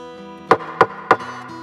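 Three evenly spaced, firm knocks on a palace door at night during a terrible storm, sounding over a steady low background hum with no voices.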